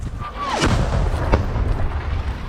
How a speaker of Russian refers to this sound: Наша артиллерия, артиллерия стреляет по русне, ты слышишь это звук выхода. Э, руснявая артиллерия или минометы э, открывают огонь в ответ, ты слышишь звук приходов, а слышишь эти свисты.